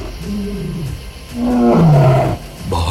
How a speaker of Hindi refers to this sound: मुझे देखकर भेड़िए बाघ शेर दहाड़ते तो हैं पर मुझसे डर के भाग जाते हैं